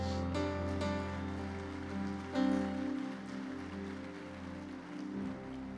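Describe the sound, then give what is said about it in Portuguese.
An audience applauds the Lord in a steady, dense patter of clapping, with sustained keyboard chords ringing underneath throughout and no speech. “Dê um blado de vitória aí, aplauda o Senhor.”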